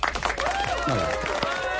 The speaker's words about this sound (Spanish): me encanta este top 10 que acabas de presentar. Mereces un aplauso.